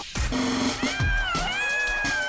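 A burst of many voices screaming and shouting together to greet Dr. Eduardo Calixto on the Exa radio show, loud, with overlapping high-pitched yells and noisy bursts that carry on for a couple of seconds.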